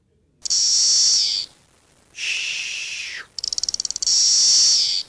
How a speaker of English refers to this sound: In any case, here are the three species. This is number one. Magicicada cassinii, makes the white noise sound.